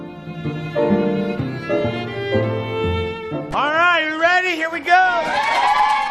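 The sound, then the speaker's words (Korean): An employee of a large US store calls out loudly, opening the doors to start business on Thanksgiving Day for Black Friday, then a crowd of shoppers bursts into overlapping whoops and cheers that stay loud and excited as they rush into the store. “라고 외치자 사람들이 환호를 지르며 가게 안으로 들어갑니다.”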